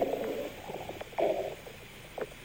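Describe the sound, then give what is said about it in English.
Someone chewing a moist breakfast burrito, with soft, wet mouth sounds coming in a few uneven bursts and no talking. “Just give you a few moments to savor the sound that goodness.”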